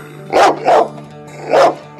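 A dog barks three times, a quick pair followed by a single bark after a short pause, loud over a faint steady hum.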